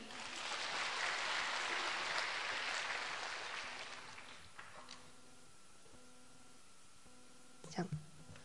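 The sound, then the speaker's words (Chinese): An audience at a Xinling Famen (Guan Yin Citta) gathering claps to welcome a speaker from Auckland, a dense, loud wash for about four seconds, then the applause tapers away, leaving soft sustained musical tones and a brief clatter near the end. “心灵法门真实不虚，让我们掌声欢迎。”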